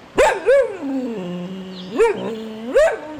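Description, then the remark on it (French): A dog barks in four sharp, high-pitched yelps, with a drawn-out whining tone between the first two and the last two, and no voices. “Ça, je dois dire que pour un clébard, tu te débrouilles pas mal, mon salaud.”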